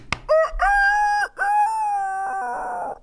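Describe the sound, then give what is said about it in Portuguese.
A person imitates a rooster's crow with one loud, drawn-out cock-a-doodle-doo lasting about three seconds, with a brief break partway through and a rough, fading end. “Aí tem o, o galo, né? Que eu já imitei aqui.”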